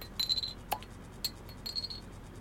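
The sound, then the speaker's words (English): Glass clinks a few times, bright high chinks with a sharper knock in the middle, like a beer bottle tapping against a glass. Quiet and brief, with no talking. “It's easier to get beer here than water, and I've opened it now.”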